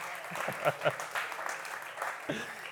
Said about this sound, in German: Heute beginnt die neue Saison. Alle sind total aus dem Häuschen, wie man sieht. Und ja, Applaus, Leute.